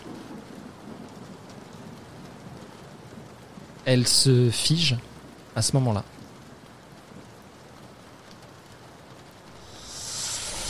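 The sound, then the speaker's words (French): Steady rain hisses throughout, a constant downpour. A voice speaks briefly in the middle, and the rushing noise swells toward the end. “Et entre la pluie et les tremblements de ses mains, on voit qu'elle fait encore chuter ses clés.”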